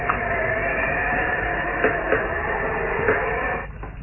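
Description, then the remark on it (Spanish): A heavy castle wall section hiding a secret door grinds slowly shut, a steady rough mechanical rumble with a few faint clunks along the way, fading out as it comes to rest. No voices. “Luego, la sección del muro que se había abierto principió a cerrarse lentamente.”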